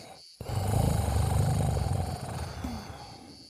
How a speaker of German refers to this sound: Offensichtlich liegt da jemand drin, der schnarcht.